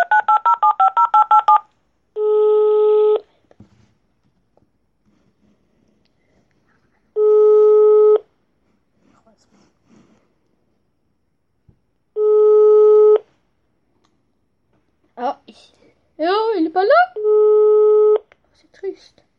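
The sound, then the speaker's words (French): A quick burst of keypad dialing beeps as someone phones their father, then the line rings back in long steady tones repeating about every five seconds, unanswered, with a brief warbling voice-like sound near the end. “Bon, on essaye jusqu'à qu'il y ait quelqu'un qui décroche au téléphone.”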